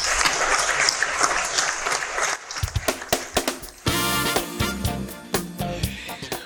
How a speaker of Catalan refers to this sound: tan sols em queda dedicar-vos el meu més sentit aplaudiment.